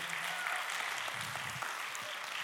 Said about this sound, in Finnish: Annetaan iso aplodi.